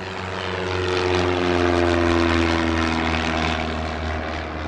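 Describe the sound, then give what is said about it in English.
A small propeller airplane at the Willows Airport in California, beside rice fields, drones with its engine a steady, buzzing hum with strong low tones that swells slightly in the middle and then eases, with no voices. “Some fly in just for the food.”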